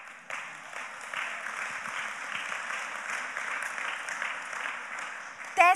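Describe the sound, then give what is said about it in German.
A steady wash of applause from a crowd, sustained and fairly even in loudness for several seconds, ending as a voice briefly cuts in at the close. “Applaus”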